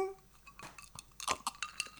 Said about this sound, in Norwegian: Eh, vi har jo noe å feire med. Vi har, jo ja, en drink. Ja, men skål, da. Skål for det.